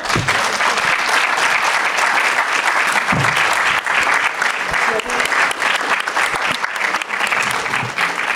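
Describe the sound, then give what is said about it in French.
Sustained, dense applause from a large audience fills the whole stretch, loud and steady with a broad crackling texture of many hands clapping at once, closing a round-table discussion. “On va devoir clore cette première table ronde sous un tonnerre d'applaudissements.”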